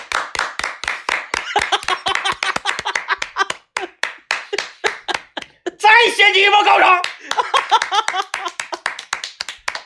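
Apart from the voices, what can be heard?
applause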